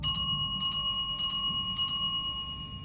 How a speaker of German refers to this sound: hört ihr ein rasantes Klingeln als wäre es von einer Küchenglocke oder einer Rezeptionsklingel.